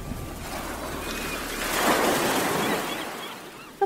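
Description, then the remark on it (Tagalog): Steady ocean surf washes over a beach with dirty water, recorded on a camcorder from atop a large rock formation: a broad hissing roar that swells louder midway and then eases back, with a faint breeze and a brief click at the very end. “Nasa itaas ng malaking batuhan si Ella habang kinukuhanan ng camcorder ang maduming tubig ng beach mula sa kinalalagyan niya nang mapansin niya ang kakaibang dumi ng paligid.”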